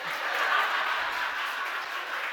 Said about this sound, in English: all the ladies are applauding right now yes there's a god please touch my man that way